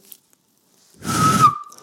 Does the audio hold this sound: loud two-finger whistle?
yes